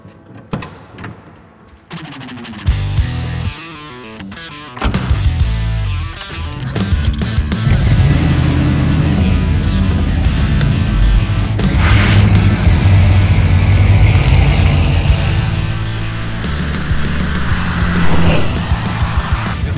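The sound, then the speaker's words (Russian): A car door thuds, a starter cranks briefly, then the 351 (5.8-liter, 289 horsepower) V8 engine of a 1971 Mustang Mach 1 fires up and settles into a loud, deep burbling idle, with a few throaty revs midway, with no talking. “Что же до нашего экземпляра, то здесь стоит 351 мотор, 5,8 литра, 289 лошадиных сил.”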